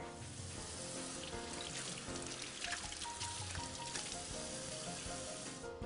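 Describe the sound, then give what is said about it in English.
A steady stream of cold tap water runs and splashes continuously, with small irregular spatters as shellfish is rinsed under it. The hiss stays even, with no talking. “So rinse it under cold water.”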